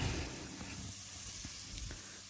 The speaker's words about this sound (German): So. Jetzt sind die Garnelen in der Pfanne